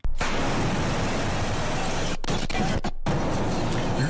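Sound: explosion blast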